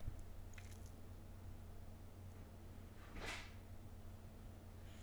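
A door opens upstairs, a single soft creaking-thump about midway through, muffled and faint over a steady low hum with no one talking.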